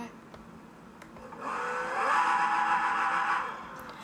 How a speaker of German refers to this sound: Da hat er 1800 PS. Ach du Scheiße, warte ich gebe da mal kurz Gas. Er ist einfach jetzt schon auf 100 km/h.